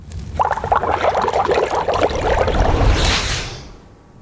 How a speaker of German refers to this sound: Hm. Und ab. ja, da blubbert es vor sich hin.